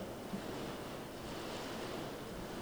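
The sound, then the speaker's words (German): Storm water pelts against windows in a dense, unbroken roar, a steady rushing wash that stays loud and even throughout with no one speaking. “Hier knallt das, knallt das Wasser gegen die Fenster.”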